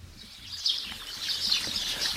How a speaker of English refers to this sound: Oh, sparrow noise. Sparrow noise. Alexa, open sparrow noise.